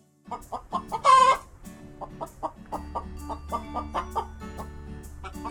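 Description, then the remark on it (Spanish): A hen clucks repeatedly in short, rhythmic bursts, with one louder squawk early on and a low hum running underneath. “Hola, que ha llegado una gallina.”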